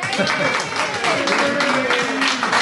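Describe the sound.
A crowd applauds steadily, a dense wash of clapping at an even loudness throughout, with a voice or two faintly audible underneath.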